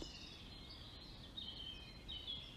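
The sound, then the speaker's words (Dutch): Soft birdsong in a beautiful nature area fills the background, a steady wash of high chirping with a few brighter trills rising out of it, over quiet ambient noise and no talking. “Je bent omringd een prachtig mooi natuurgebied. En je hoort de vogels.”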